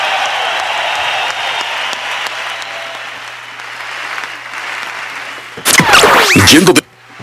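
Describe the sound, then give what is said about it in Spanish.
A crowd at a rock gig applauds for disabled attendees and their families in a steady, dense wash of clapping for several seconds, then a loud swooping electronic sweep bursts in briefly before the sound cuts off. “Que se un aplauso para ellos y para sus familias que vienen a traerlos al rock and roll.”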